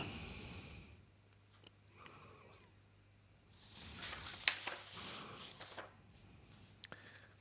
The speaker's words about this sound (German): Meine Damen und Herren, Sie hören uns wieder intensiv blättern.